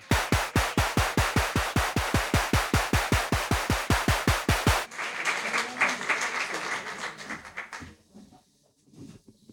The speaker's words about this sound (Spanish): Este aplauso para todos los que van a comprar papeletas.